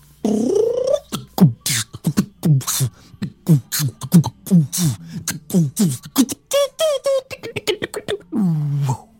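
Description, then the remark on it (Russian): A single voice beatboxes: a steady, rapid groove of mouth kicks and crisp hissing snares, with squeaky voiced sweeps woven in, ending on a drawn-out vocal buzz. “А хотите, я покажу, как я делаю битбокс?”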